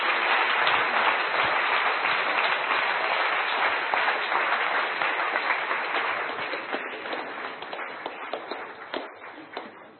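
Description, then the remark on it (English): An audience gives a clap offering to the King of Kings after a prayer, clapping together in a dense, steady wash of hand claps that holds strong for several seconds, then gradually thins and fades toward the end, with no voices over it. “Give a clap offering to the King of Kings.”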